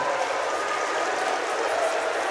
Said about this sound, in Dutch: En die man krijgt dan wel applaus. Ja, en dat mag natuurlijk niet in de assisenzaal.